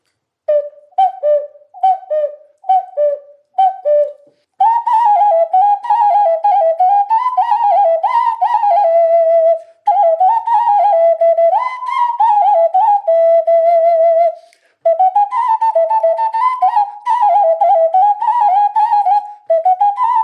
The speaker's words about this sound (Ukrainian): Ми називаємо зозулькою, а насправді це окарена. Це італійська назва, яка означає гусенятку. Можливо, первісна форма була якась гусенятка, але це вже дійсно професійний інструмент. Ну, ми кажемо зозулька, бо недобре зозулю імітують.